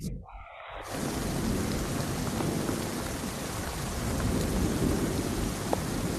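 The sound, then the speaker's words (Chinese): After a moment of silence, heavy rain pours down on a stormy night in a dense, steady hiss, with deep rolling thunder rumbling loudly beneath it throughout. No one speaks. “下雨打雷的声音，可以稍微听一点”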